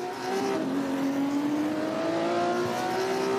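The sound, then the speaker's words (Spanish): Racing car engines roar and steadily climb in pitch as they accelerate, a loud, continuous high-revving drone that lasts throughout with no talking. “Pero la diferencia son nada con estos autos, con esta categoría.”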